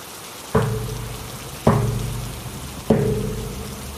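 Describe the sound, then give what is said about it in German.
Heavy pouring rain of a thunderstorm hisses steadily throughout, broken by three loud, sharp thunder cracks spaced about a second apart, each fading into a low rumbling tail. No one speaks. “Es blitzte und donnerte ganz entsetzlich und der Regen strömte hernieder.”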